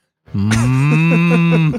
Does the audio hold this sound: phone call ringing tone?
no